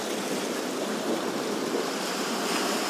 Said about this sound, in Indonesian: coba dengarkan ombak yang semakin kadang deras kadang kecil kadang pasang kadang surut tuh Kencang. Saat ini ombaknya kencang. Nanti tiba-tiba ombaknya reda lagi.